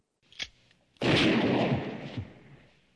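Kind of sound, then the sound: sound effect, gunshot sound effect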